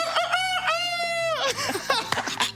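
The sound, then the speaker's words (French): A person imitates a rooster crowing: one loud, strained cock-a-doodle-doo with a long held middle, followed by a jumble of shorter vocal noises. “Allez, je fais l'animal, je, je sais faire le coq.”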